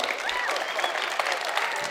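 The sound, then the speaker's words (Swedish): An audience applauds a hockey player for never missing the NHL playoffs in 20 seasons, a dense steady patter of many hands clapping at once, fairly loud and continuous throughout, with faint voices mixed into the clapping. “det här är ju värt en applåd bara den här grejen att du aldrig missade slutspel under hela karriären i NHL, 20 säsonger.”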